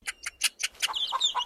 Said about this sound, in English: Cluck, cluck went the hens. That's how hens say hello, you know.